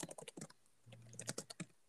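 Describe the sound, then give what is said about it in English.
Rapid, uneven typing on a computer keyboard as someone runs a search, a flurry of sharp clicks with a brief pause midway and a faint low hum underneath, no voices. “You're gonna hear typing for a second.”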